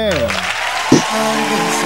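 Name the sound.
applause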